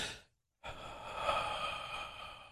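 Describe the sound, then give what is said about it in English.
A short breathy sound, then a brief silence, followed by a longer airy exhale that wavers and catches unevenly, demonstrating a hitched exhale in a breathing exercise, with no talking. “exhale on a slow, steady stream without any hitches in it. You don't want to hear, you want to exhale”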